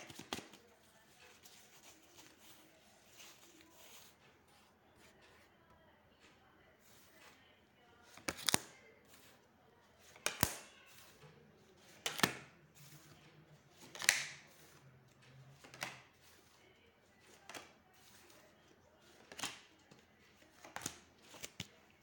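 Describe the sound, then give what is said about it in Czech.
Tarot cards being shuffled during a partner card reading: a steady papery rustle at first, then a series of sharp riffling snaps at irregular intervals, with no one talking. “Já už se dívám na vaše fotky, míchám u toho karty a podíváme se teda spolu, já vám udělám partnerský výklad”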